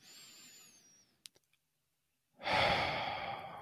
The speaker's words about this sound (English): wow, oh, maybe that's the first breath I've taken on this podcast.